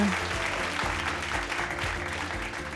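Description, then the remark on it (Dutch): Steady applause from a small group welcoming an arriving guest, continuous clapping at an even level, with some musical tones audible underneath. “Applausje.”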